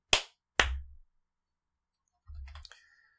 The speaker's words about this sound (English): Okay, I'm going to clap twice so I remember to cut this bit.